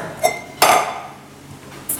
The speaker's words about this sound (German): Jetzt nehme ich mir eine Schüssel mit Wasser, Ja.